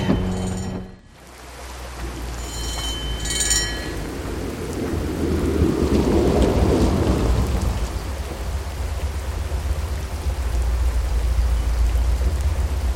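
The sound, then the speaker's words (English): Heavy, steady rain pours down in a dense hiss, with a deep rumble of thunder swelling in the middle and lingering low beneath the downpour. A few faint ringing tones sound briefly early on. “In the pouring rain?”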